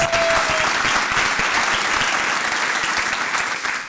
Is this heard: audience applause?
yes